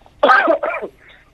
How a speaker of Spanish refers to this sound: Ajá, sí, estoy con un poco de tos, pero bueno, ya algo se me pasará.